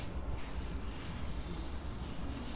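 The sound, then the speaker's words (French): A felt-tip marker slides softly across paper as a caricaturist draws in a calm place in Tunis, Tunisia, a faint continuous scratchy rubbing with small shifts as the strokes change direction, with no voices. “On entend à peine le feutre glisser sur la feuille.”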